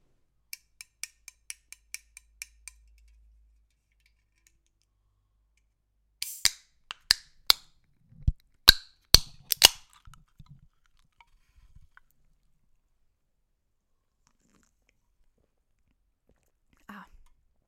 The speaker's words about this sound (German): Ich glaube, ihr habt ganz genau gehört, was wir da jetzt gerade geöffnet haben. Nämlich eine kühle Dose Monster.